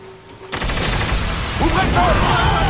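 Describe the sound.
After a brief quiet moment, loud, sustained gunfire erupts in dense rapid bursts, a continuous crackling fusillade, with a raised voice cutting through it toward the end.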